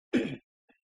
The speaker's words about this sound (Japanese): えー、ちょっとあの、咳払いします。